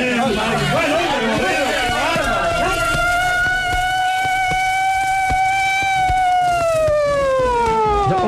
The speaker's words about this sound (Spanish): Pronto, pronto, pronto, que venga la ambulancia, pronto. Este hombre está herido.